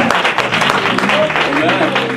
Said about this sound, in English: That's good if you were just clapping for me. But since we're supposed to be giving a hand clap to the Lord, Hallelujah.